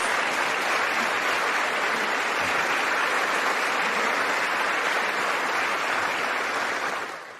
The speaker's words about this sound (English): We now finally, finally have a Speaker of the House, and that would be Mike Johnson from Louisiana. Let's listen. The challenge before us is great, but the time for action is now, and I will not let you down. There's the applause.